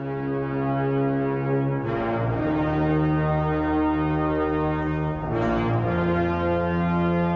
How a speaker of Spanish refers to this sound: Un hombre sopla una larga trompeta colocada sobre las almenas de Ciudad de Valle.